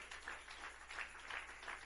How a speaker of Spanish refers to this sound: Le damos un fuerte aplauso a Él. Fuerte las palmas a Él.